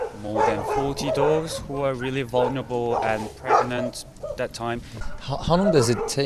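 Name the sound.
dogs barking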